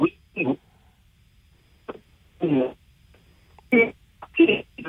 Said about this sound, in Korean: 아, 지금 현장에서 전화 연결이 되는 상황이라 연결 상태가 이렇게 좋지 않습니다. 양해를 좀 부탁드리겠고요.